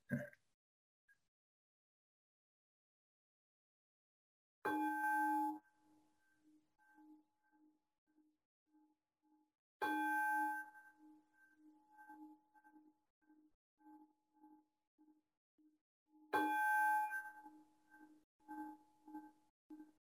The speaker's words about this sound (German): Dann macht es dreimal Gong und dann geht's los.